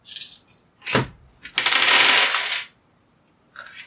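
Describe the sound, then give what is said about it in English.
Dice rolled for a physique roll with a difficulty of two clatter and tumble across a hard surface, coming up four threes and two fives: a few short rattles, a sharp knock, then a longer bright rolling clatter that stops, followed by one brief final rattle. No one speaks. “Give me a physique roll with a difficulty of two for, like, catching the boat as it's sailing by and climbing up.”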